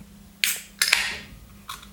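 A beer can is cracked open: a sharp metallic click, then a louder pop with a short fizzing hiss, and another faint click a moment later. No one speaks.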